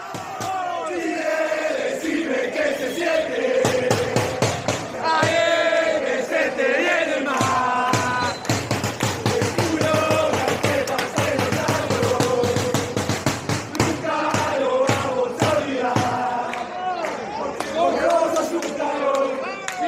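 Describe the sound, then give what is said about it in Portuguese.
A large crowd of football fans chants a hostile song in unison, loud, punctuated by rapid rhythmic claps or drum hits through the middle stretch. “Os argentinos fizeram uma versão dessa mesma música para os chilenos na durante a Copa América e isso mas, mas com uma letra que pegou muito mal, uma letra pesada”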